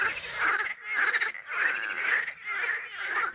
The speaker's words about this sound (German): Kriegt ihr das mit, dieses Froschkonzert? Oder Krötenkonzert? Ich kenne ja den Unterschied nicht. ist mega lustig. Äh, äh, die fangen an, dann machen sie das fünf Minuten und dann ist wieder Ruhe.